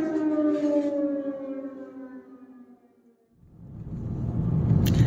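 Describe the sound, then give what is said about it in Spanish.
An air raid civil defense siren in Ukraine wails with a steady harmonic tone that slowly falls in pitch and fades out, then broad rumbling noise, like traffic or wind, swells up loudly. “En Ucrania falta luz, falta agua, faltan alimentos, y este sonido acompaña a millones de ciudadanos en su día a día desde hace un año.”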